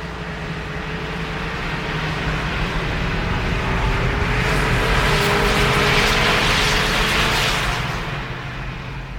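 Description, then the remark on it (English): Snowmobiles in Yellowstone roar past with a loud, droning engine whine that swells to a peak midway and then begins to fade, a dense, continuous mechanical buzz with no voices. “set the calibrated the speakers and the output so that it would be at the same level as the snowmobiles going by in Yellowstone”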